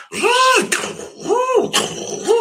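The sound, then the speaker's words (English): A person vocally imitates a giant mech suit in motion: three rising-and-falling whirring swoops with breathy hisses between them, fairly loud. “It may not be musical, but sometimes I'll, you know, I'll pretend I'm in like a giant like mech suit or whatever.”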